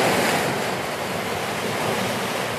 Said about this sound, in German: Jetzt kommen die Wellen hier gerade zu doll.